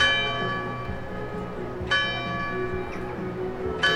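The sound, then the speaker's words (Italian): Church bells ring out in a city square, two fresh strikes about two seconds apart over a long ringing hum of overlapping tones, with faint low murmurs underneath. “Nel Settecento Filippo Iuarra, che all'epoca era primo architetto civile del regno sabaudo e sentiva queste campane ogni giorno”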